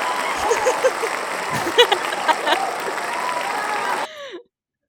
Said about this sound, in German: Beides echt riesen Applaus für dich.